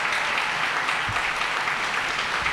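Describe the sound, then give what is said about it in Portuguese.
A theater audience claps steadily for a live orchestra show, a dense, unbroken wash of many hands that stays loud and even for the whole stretch, with no voices standing out. “O espetáculo ao vivo ganhou muitos aplausos depois de tanto tempo transmitido apenas pela internet.”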